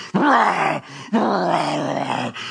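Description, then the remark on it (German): A pit bull growls loudly in two long, rough snarls, the second drawn out longer, with only a brief pause between them and no other sounds. “Die Hunde des Untergangs lauern vor oder um die Tür deines Schicksals.”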